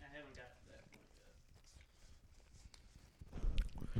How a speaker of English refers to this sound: If you don't like hearing chewing sounds, guys, I'm just gonna. We got to do like an ASMR Chew. vibe, you know?